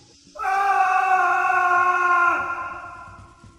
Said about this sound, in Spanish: Sipacna habló entonces lanzando un grito, una sola vez, cuando el palo cayó en el fondo del hoyo